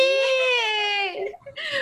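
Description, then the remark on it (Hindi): A voice mimics a giant baby monster that has turned into a baby and cries for its mummy: a long, high, wavering wail that drops off, followed by a shorter rising sob, loud. “किसको पिश कर दिया विशाल शिशु राक्षस को पिश कर दिया और फिर वो एक बेबी हो हाँ, गया हाँ वो बेबी बन गया और वो क्राई करने लगा मम्मी”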